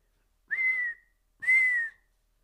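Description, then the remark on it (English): A person in a film whistles two steady, clear notes in a row at the very end of the film, each lasting about half a second and separated by a short pause, fairly loud with no other sounds. “I think and then at the very at the very end too, when he's whistling.”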